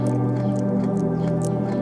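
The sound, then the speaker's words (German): Soft, wet chewing and smacking of an alpaca close by, a handful of quick irregular mouth sounds over a steady low droning background; no voices. “Kaum hörbar erkennst du ein Schmatzen ganz in deiner Nähe.”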